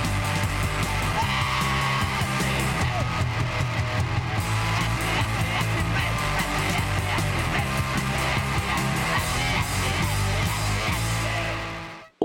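A loud, dense punk rock song from 1982 with distorted guitars, pounding drums and shouted vocals, playing at full volume throughout before cutting off abruptly at the end.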